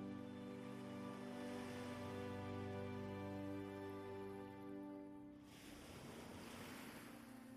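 Ocean waves wash onto a shore in a steady, rushing surf. A low sustained hum runs beneath at first, then drops away, leaving a broad, airy wash of water.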